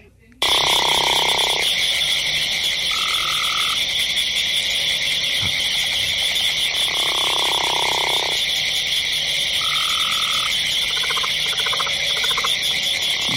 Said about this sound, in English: We, we, have got a lot going on in this one. Mm-hmm. Yeah. So this this is somewhat of a I'd say a, a late late winter, early spring time where you can hear the gopher frog calling in there, but you can also hear gray tree Cope's gray tree frog,